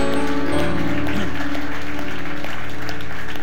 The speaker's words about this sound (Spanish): Vamos a dar un aplauso al Señor y nos vamos a sentar.